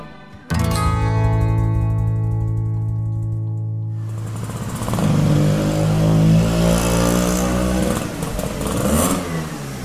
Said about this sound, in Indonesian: Dari arah kejauhan, suara motor Hanif pun terdengar. Segera, Hanif memarkirkan motornya dan langsung menghampiri Yoga.